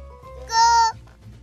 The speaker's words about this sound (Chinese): 我们叫的声音比母鸡还要多呢。 但是仔细听，还是可以听到母鸡的叫声哦。